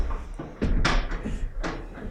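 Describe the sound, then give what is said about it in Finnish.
A cabin door is blown violently open by the wind, banging with a sharp, loud clatter followed by a second knock, then another thump as it swings, with a faint rushing background like wind. “Ah, hyvät kuulijat, juuri äh, mökin ovi lennähti väkivaltaisesti auki tuulen voimasta.”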